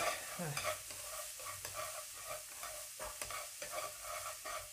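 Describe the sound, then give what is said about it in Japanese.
Fried rice being stir-fried in a pan, with a steady broad sizzle and repeated scraping clanks of a utensil against metal at an irregular rhythm, fairly loud. “チャーハンを作りましょう”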